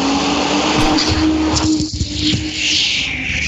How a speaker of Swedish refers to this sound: Det var en buss.